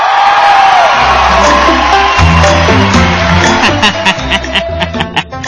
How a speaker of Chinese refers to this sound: 海大夫上台，掌声自然来。